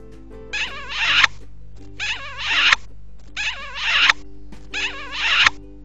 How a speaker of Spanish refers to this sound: cuatro besos.